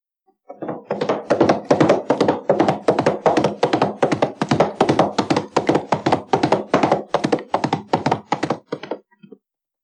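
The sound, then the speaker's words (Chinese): A pony's hooves trot along in a steady, quick rhythm of hollow clip-clop knocks, loud and even for several seconds with no voices, then stop. “原来是小马哒哒哒跑过来了。”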